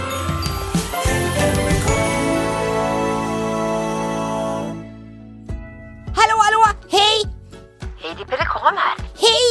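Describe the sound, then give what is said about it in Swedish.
A bright, jingling telephone ring chimes steadily for about five seconds, then stops, and voices begin talking. “Hör! det ringer, det ringer!”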